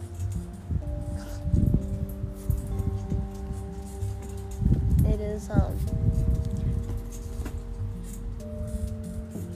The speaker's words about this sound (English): this thing above me for shade that is creaking because we have so much wind out here. We are in California, um, but today I guess it's especially windy.